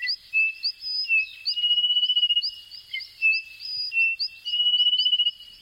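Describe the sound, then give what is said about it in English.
A dense chorus of thousands of small frogs trilling and whistling in high, rapid pulses as night falls in the lush rainforest of Les Pitons du Carbet, the volcanic mountains of northern Martinique, a Caribbean island. Many voices overlap into a steady, shimmering night chorus with no talking. “In Les Pitons du Carbet, the volcanic mountains in northern Martinique, thousands of small frogs emerge from the lush rainforest as night falls.”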